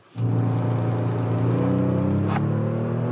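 A Kia Stinger GT engine bursts into a loud, deep rumble and holds a throaty, steady rev with a slight climb in pitch for about three seconds, with no voices.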